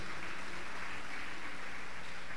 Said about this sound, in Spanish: Y eso es lo que a mí o a mi esposa y a mí, si le va a dar el aplauso, déselo al Señor esta noche.